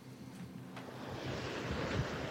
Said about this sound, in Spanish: Bueno, de manera improvisada, eh, con el mar de fondo, en Atalis, Menorca